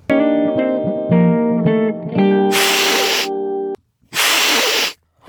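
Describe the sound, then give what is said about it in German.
Someone imitates a cat's hiss: after a sustained, buzzy tonal sound, two loud, breathy hissing bursts come, separated by a short pause. “Das ist das, das, ist das Fauchen. Das Fauchen der Katze.”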